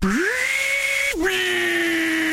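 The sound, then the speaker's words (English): A table saw motor whines up to a steady high pitch, dips briefly as if biting into wood, then keeps running loud with no talking. “Table saw.”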